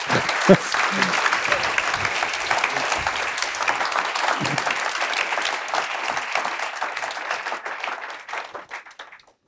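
Sustained audience applause from a large crowd for author Daniel Kehlmann, dense steady clapping that continues for several seconds before thinning out and fading near the end.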